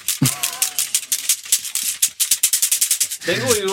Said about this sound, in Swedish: Det här är en abakus. Ja, precis. Det är ju liksom... Den låter så här.